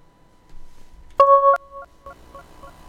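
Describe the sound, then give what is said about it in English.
Telephone line tones from dialing a call that fails to connect: a faint steady hum, then a loud dual-pitched dialing beep lasting about a third of a second, followed by quieter, broken beeps. No one speaks. “No, didn't want to connect. Oh, we'll try them again, and fingers crossed we'll be able to get through to them, okay?”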